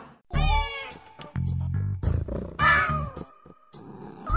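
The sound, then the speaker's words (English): A cat meows loudly and insistently, several drawn-out, wavering cries in a row, with lower, throaty yowls mixed in between and no one talking. “Think that Dr. Pat shows the cat's meow?”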